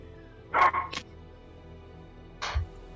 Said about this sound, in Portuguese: É um cachorro gigante.